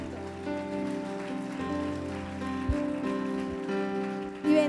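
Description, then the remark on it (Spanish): A church audience claps in thanks to God, a dense, even patter of many hands layered over sustained keyboard chords, growing slightly louder toward the end. “Levántale un aplauso de agradecimiento.”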